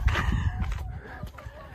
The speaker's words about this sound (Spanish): Mira las gallinas, they think that you're gonna feed them. Mira el gallinero, gallinero.